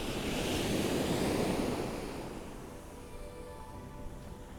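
Strong wind roars across Chesil Beach alongside crashing surf, heard through a microphone with a wind muff, loud and blustery at first, then easing to a steadier, softer rush after a couple of seconds. No voices.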